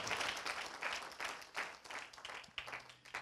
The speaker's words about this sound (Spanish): Denle un aplauso al Señor, por favor. ¡Wow!